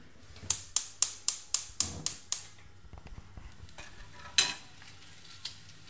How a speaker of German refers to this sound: Okay, Hühnerbrühe ist aufgesetzt, Zwiebeln fangen an zu, zu braten.